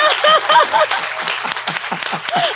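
A crowd breaks into applause, many hands clapping in a dense, steady patter that stays loud for a couple of seconds, with a few faint voices mixed into it.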